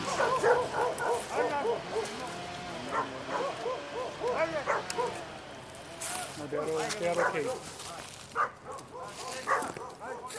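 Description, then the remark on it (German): Several dogs bark and yip repeatedly in short, overlapping bursts, with occasional whimpers, while people talk in the background, at a logging site in a national park where the workers then call the dogs back. “Die Arbeiter rufen die Hunde zurück.”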